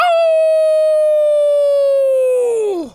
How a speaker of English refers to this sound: Dad, what is that sound? That is the cry of the beast.